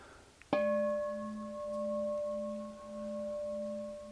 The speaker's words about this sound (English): And as I was talking about last last week, just noticing, just with the sound of the bell.